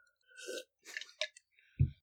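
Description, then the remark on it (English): Someone drinks from a glass of water: a few short wet sips and swallows with small clicks, ending in a brief low thump, all fairly quiet with no talking. “Wait, I have a glass of water.”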